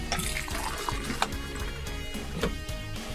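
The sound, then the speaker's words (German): Tea is poured steadily from a 3-litre thermos flask, a continuous gurgling liquid stream with bubbling splashes filling a cup, fairly quiet, with no talking. “Ja, Sie haben Tee einge eingeschenkt.”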